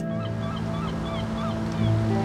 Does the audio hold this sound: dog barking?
no